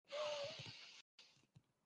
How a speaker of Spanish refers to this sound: me pongo a respirar cinco minutos, diez minutos, respiraciones al tórax, inflo el pecho.